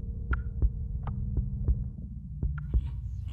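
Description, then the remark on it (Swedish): A heartbeat sound effect thuds in steady paired beats, deep and muffled, repeating several times over a low droning hum with no voices. “Du, du hör ditt eget hjärta.”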